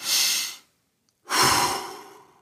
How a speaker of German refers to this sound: Man kann es vielleicht ein bisschen hören. Wenn ich jetzt tief einatme, dann hört sich das so an.